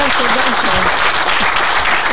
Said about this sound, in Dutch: nogmaals, applaus voor deze mooie sessie.